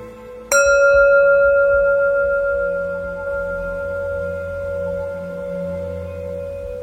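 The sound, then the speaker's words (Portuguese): A single meditation bell struck once, ringing out with a clear tone and long, slowly fading resonance that sustains for several seconds in a quiet space. “toda vez que você escutar o sino traga sua atenção à sua respiração a este momento.”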